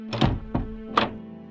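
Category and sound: household object, door opening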